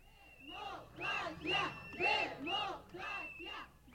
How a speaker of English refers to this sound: For the past few months, protesters have been gathered next to the fountain in Washington Square Park. Today, they're holding blue and white Israeli flags, and they're shouting the Hebrew word for democracy.